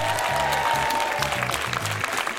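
A large audience applauds steadily and loudly, a dense wash of clapping that fills the whole moment, with a low musical tone pulsing faintly underneath.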